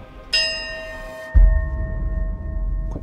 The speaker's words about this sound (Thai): เขาบอกว่าใครสั่นระฆังใบนี้จะขอพรเรื่องความรักได้นะเว้ย แค่วันเดียวก็ยังดี